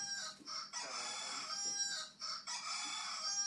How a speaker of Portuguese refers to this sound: Arruma uma galinha pra esse galo. É, esse galo aí ficou tá no meio da live. Arruma uma galinha pra esse galo.